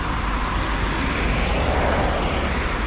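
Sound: road traffic passing by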